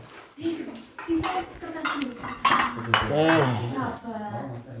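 Empty ceramic plates clatter and clink as they are stacked and shuffled, a busy run of sharp knocks with a voice speaking over the handling.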